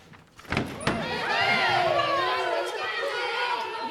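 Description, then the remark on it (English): A door bangs open at a school at lunch time and a loud wash of children's voices swells up, dozens of high-pitched schoolchildren pouring out of the schoolrooms, chattering and calling over one another in a steady, busy crowd din. “I opened the door, and pouring out of the schoolrooms were dozens of energetic, active youngsters.”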